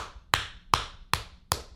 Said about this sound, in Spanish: Un aplauso para Javier Soto, hermano.